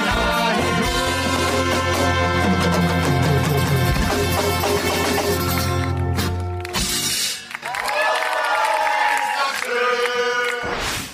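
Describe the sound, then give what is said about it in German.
A large crowd in Hörmersheim, asked to stand up, claps and cheers loudly and continuously, with shouting voices mixed into the roar; the noise briefly drops out partway through before swelling again. “Da bitte ich jetzt ganz Hörmersheim halt noch einmal aufzustehen und in die Hände zu klatschen.”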